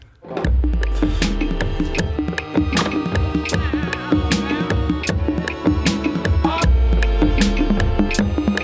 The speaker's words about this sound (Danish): Vi skal lige have en jingle.